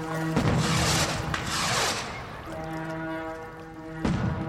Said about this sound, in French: Son départ est alors salué par un feu d'artifice.